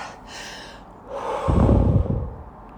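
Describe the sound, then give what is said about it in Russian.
A woman's single loud, deliberate, yoga-style exhale, breathy, follows a softer intake of breath, then trails off into quiet. No one speaks. “Прям по йоге, шумно выдохнув.”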